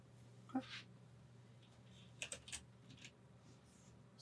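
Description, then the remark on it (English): A few scattered clicks on a computer keyboard, quiet and irregular rather than steady typing, over a low electrical hum and faint background murmur. “I think it's uh why is my keyboard wasn't working.”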